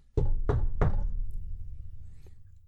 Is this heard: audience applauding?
no